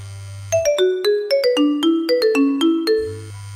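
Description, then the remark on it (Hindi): A mobile phone ringtone plays a quick melodic run of bright, bell-like electronic tones, about a dozen notes stepping up and down. It is loud, with a low hum before and after. “अचानक मेरा phone ring हुआ”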